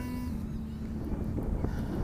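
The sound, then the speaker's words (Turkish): Light wind in fine weather rumbling against a microphone, a steady low, muffled roar with a faint tonal hum running underneath, continuous and fairly even in loudness throughout. “Hafif hafif rüzgar esiyor belki uğultu yapıyordur şimdi size.”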